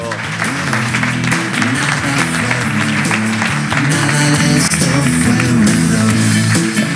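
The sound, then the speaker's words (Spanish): An audience applauds steadily for the full stretch for the team of the Ámbito Cultural, a dense wash of many hands clapping at constant loudness, with a low murmur of voices or music humming beneath it. “El primer aplauso para el equipo del ámbito cultural.”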